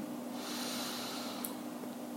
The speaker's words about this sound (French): Alors prenez une grande inspiration et soufflez en expirant par la bouche. Et si besoin, vous pouvez reprendre comme ça une deuxième et grande respiration.